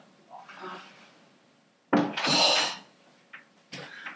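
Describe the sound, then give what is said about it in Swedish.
Clothes hangers clatter and click as a man handles them inside the adjacent wardrobe: a sharp knock, then a longer scraping rattle and a couple of short clicks after a quiet start. “Han var inne i garderoben som var bredvid. Men det lät ju så här bara klick, klick, klick, klick.”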